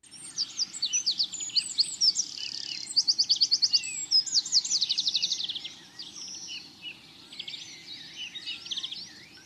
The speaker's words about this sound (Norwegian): Fuglesang er ikke bare pent å høre på. Fine toner og høyt volum brukes av våre fjørkledde venner for å tiltrekke seg en partner.